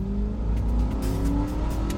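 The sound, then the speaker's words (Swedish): A car engine accelerates as the car flees quickly from a restaurant carrying Simon Levajev and his companion, its steady rumble climbing gradually in pitch as it picks up speed for about two seconds, with no voices present. “Simon Levajev och hans kompanjon, som också är med under middagen, lämnar snabbt restaurangen och flyr i en bil.”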